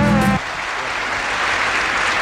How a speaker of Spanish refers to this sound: Vamos a dar aplausos a Vicky, la gran actriz.